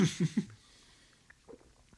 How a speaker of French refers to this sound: Les bruits de déglutissement. Déglutition.